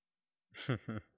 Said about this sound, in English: Oh, here's the coughing up coins part.